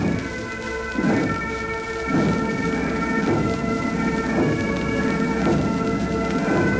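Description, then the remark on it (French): A cannon salute fires at Windsor during the funeral procession of a British sovereign: a series of deep, rumbling booms recurring about every second, heard over a steady tonal hum with no voices. “Lentement, le cercueil avance entre une double rangée de gardes qui rendent les honneurs, cependant que le canon donne toujours à Windsor.”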